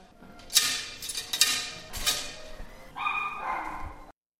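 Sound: dogs barking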